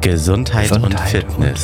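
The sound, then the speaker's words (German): A voice deliberately speaking extra quietly mimics an echo by repeating a word right after saying it, then continues speaking in an even, steady flow with no pause between the phrases. “Ich mach das Echo. Versuchen wir mal.”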